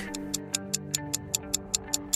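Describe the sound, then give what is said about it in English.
A clock ticks steadily and quickly, about a dozen crisp, evenly spaced ticks, layered over a sustained low musical drone. No one speaks. “Let's turn back the clock.”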